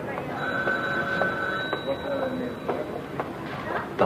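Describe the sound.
A telephone rings with a steady, high electronic trill over a busy room, with faint murmuring voices and scattered clicks and knocks around it.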